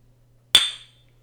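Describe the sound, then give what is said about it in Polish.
A single sharp clink of glasses touching in a toast, with a bright ringing tone that fades over about half a second. It is fairly loud, with no talking and only a faint low hum behind it. “też. Do zdrówko”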